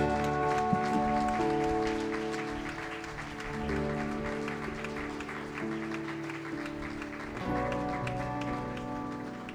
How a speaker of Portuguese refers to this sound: Dê a salva de palmas a Jesus.